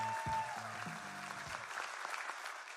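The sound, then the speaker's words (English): A church audience at True North claps for Jesus with steady, dense clapping that fills the whole clip, joined by a sustained organ-like tone and a few low bass notes underneath. “True North, come on, let's clap for Jesus.”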